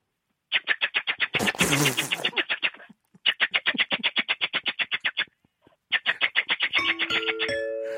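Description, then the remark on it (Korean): A voice imitates a pressure rice cooker: rapid, steady chugging pulses in three bursts, with a breathy steam-like hiss early on and a rising whistle-like tone at the end, fairly loud. “압력밥솥 갈게요.”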